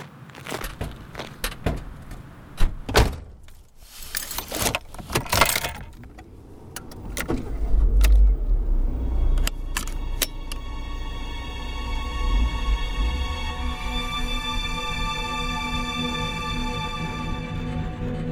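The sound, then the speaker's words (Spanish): Several sharp thuds and clunks of car doors shutting as people get into the car, then an engine starts and revs, settling into a steady, loud drone as the car pulls away to take a body to the police. “Entra al coche.”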